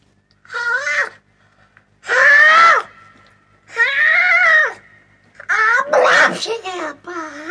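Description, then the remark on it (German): A voice loudly imitates repeated sneezing by a character sitting on a straw bale in the barn of a riding stable: several drawn-out, sing-song sneezes in a row, separated by short pauses, with the last ones coming quicker together. “Während nun Gänseblümchen und Hatschipu auf dem Strohballen saßen, fing Hatschipu plötzlich an zu niesen.”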